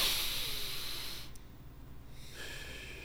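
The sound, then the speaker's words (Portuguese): Slow, deep calming breaths: an airy rushing inhale that fades, then a softer exhale after a brief lull, with no talking. “faz isso algumas vezes, o sistema diz: ah, não, acho que tá tranquilo, porque a respiração tá de boa.”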